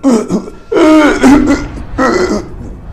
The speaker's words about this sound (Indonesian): ada satu kejadian itu ketika istri dari yang ngontrak di sini ini dengar suara orang yang batuk yang sangat keras sekali itu yang kayak kesakitan